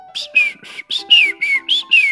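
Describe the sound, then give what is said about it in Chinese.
A bird sings at night under the night sky, a quick run of about eight bright, high chirping notes, each sliding slightly downward, in a steady rhythm with brief gaps between them and no talking. “哎，小鸟在美丽的夜空下歌唱。”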